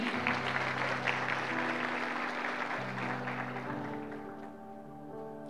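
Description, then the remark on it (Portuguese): Sustained audience applause for the Lord after a prayer fills the whole stretch, a dense steady clatter of many hands clapping, with sustained low organ-like chords shifting pitch underneath and fading slightly toward the end. “Dê uma salva de palmas ao Senhor aí.”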